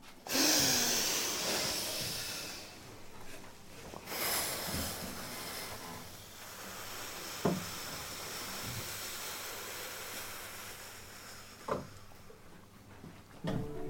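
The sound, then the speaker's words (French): Someone inhales and then blows hard through a straw as a breathing exercise to de-stress and relax the body, making loud, rushing, airy breath noise in a few long surges, with occasional sharp little clicks and no talking. “Vous êtes prêts On inspire et on souffle bien fort.”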